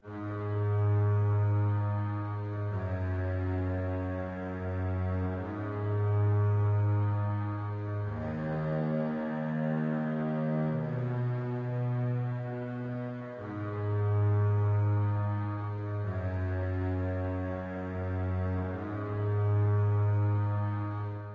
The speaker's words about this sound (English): Um, so the double bass, if I, if you just want to hear the double bass as a solo, it sounds like this.